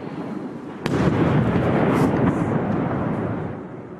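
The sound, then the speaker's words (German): A sudden loud explosion from a missile striking nearby in Kyiv, Ukraine, bursts in near the start, followed by a sustained heavy rumble and debris-like roar that slowly fades over several seconds, with no voices heard. “in der ein britischer Kollege aus Kiew berichtet und dann in Deckung geht, weil in der Nähe eine Rakete einschlägt.”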